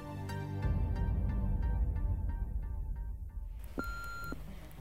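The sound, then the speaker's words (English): A single steady electronic answering machine or voicemail beep sounds for about half a second near the end, in the middle of the night, after a stretch of low rumble and evenly spaced faint clicks. No one speaks. “Like, is this an old school answering machine?”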